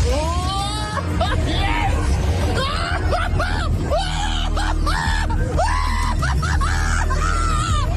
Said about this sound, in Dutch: Nou, dat is het moment dat hij live op de radio is... terwijl hij in een kermisattractie zit.